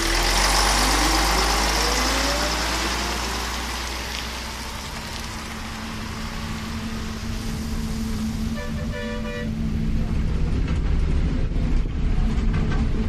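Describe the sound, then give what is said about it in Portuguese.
A city bus pulls up at a bus stop with its heavy engine rumbling loudly, a rising whine as it slows, then a short squealing tone near the end over steady street noise. “O meu ônibus chegou depois da passagem do caminhão da prefeitura raspando o chão.”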